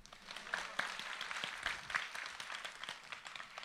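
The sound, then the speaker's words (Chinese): An audience applauds steadily, a dense wash of many hands clapping with a few sharper individual claps standing out, sustained at an even, moderate level throughout. “先鼓掌来。”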